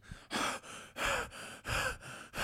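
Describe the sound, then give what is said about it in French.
A voice imitates the wheezy, heavy breathing at rest of people in poor health, with about seven loud, rasping breaths in and out in a steady rhythm and no speech. “Voilà, ça c'est leur respiration euh, au repos.”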